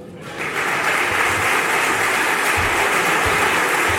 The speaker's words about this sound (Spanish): y arrancan esos aplausos, ¿no? Para Joaquín